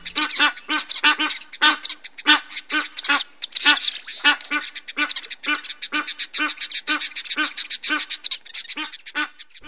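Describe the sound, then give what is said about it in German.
Egyptian goose calls: a rapid series of harsh, honking quacks repeated in quick rhythmic bursts throughout, loud and raspy with no talking. “Der Vogel der Woche ist die Nilgans als Afrika.”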